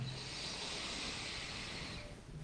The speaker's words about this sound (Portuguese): Vamos lá, fazer mais uma vez agora prestando atenção e como a gente fica pós-respiração. Puxa o ar.